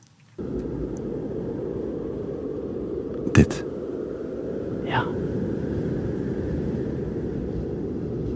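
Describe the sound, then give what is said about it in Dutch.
A steady, low roar of wind blows continuously across an empty, lifeless, sterile landscape with no people, animals or plants. A brief knock sounds partway through, and a couple of short spoken words are heard over it. “En het enige wat daar dan is, is de wind.”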